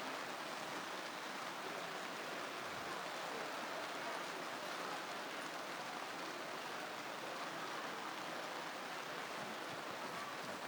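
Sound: rain falling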